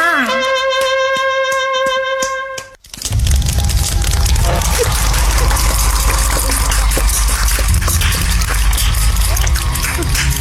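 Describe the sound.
A brief bright musical jingle cuts off, then a steady, loud wash of audience applause follows for several seconds, dense crackling claps with voices faintly mixed in.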